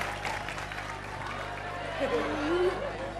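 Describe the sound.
An audience claps in a steady, dense patter that fills the whole clip at moderate volume, with a faint voice rising briefly near the end.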